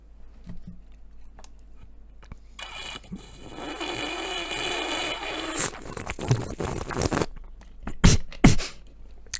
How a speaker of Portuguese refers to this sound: Ponto 1. Um, uh, quem faz isto ou quem faz o sorver do copo, né, que é aquele.